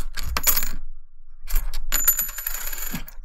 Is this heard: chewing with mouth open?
no